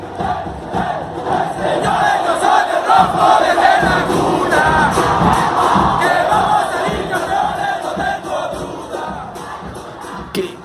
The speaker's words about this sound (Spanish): Son los integrantes de la perra brava. La porra del Club Deportivo Toluca.